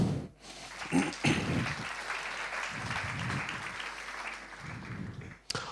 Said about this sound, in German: Applaus für unsere Männer.